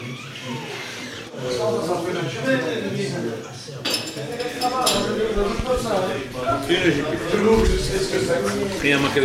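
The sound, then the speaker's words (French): Dishes and cutlery clink steadily in a busy bar, with scattered metallic chinks over a constant murmur of voices talking. “la vaisselle est parfaite”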